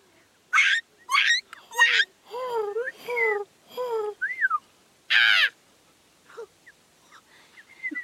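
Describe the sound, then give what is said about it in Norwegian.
Several birds caw in a quick, uneven run of harsh, squawking bursts that rise and tumble like cackling laughter, followed by a few quieter, scattered calls. “Her ler de.”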